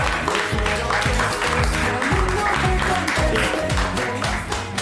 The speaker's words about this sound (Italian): Eh, grande applauso.